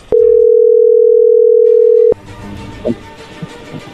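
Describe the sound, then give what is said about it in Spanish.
A phone line rings on an outgoing call: a single loud, steady, mid-pitched ring tone lasting about two seconds, then it cuts off abruptly to faint background noise and a few small clicks. “Vamos a llamarle a ver qué pasa.”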